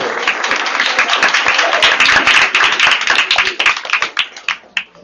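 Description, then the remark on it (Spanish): A crowd applauds the Colegio Payamista team's correct quiz answer in a dense, steady burst of clapping that thins out toward the end into a few scattered, sharp individual claps. No one speaks over it. “Un aplauso.”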